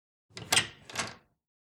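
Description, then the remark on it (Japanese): A door at the Kanazawa Bank head office is opened after a knock: two quick wooden clunks about half a second apart, the latch releasing and then the door swinging, with no voices around it. “ドアをノックしそれを開くと”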